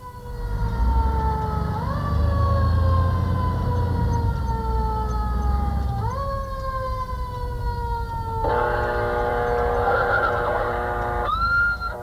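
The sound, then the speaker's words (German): A loud siren on Engine 5, a Manhattan fire engine racing to an alarm that proved false, wails continuously, its harmonic tones sweeping upward in slow repeating rises, then switching to a rapid warbling yelp before returning to a rising wail, over low engine rumble; the driver brakes hard and swerves as car drivers ignore it. “Die Autofahrer kümmern sich nicht um die Alarmsignale.”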